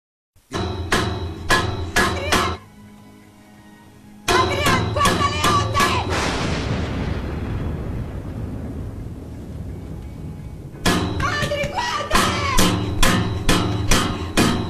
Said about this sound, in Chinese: 刚听到的是密室的女主敲击管道的声音。